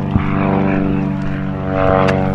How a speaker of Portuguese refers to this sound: sabe que não é de guerra o avião que passa por cima das nossas cabeças em Sintra.